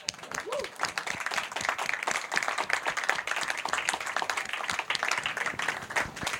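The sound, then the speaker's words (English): An audience claps steadily to thank presenters for their presentations, dense overlapping hand claps forming a continuous wash of applause that holds at an even, moderate level throughout with no pauses. “Please join me in thanking you by clapping our hands.”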